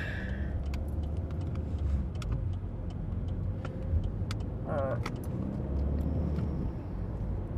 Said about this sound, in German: Warum ist hier schon wieder so viel Verkehr? 16 Uhr ist es schon wieder. Ja gut, die Tübinger Rush Hour geht sowieso im Feierabendverkehr.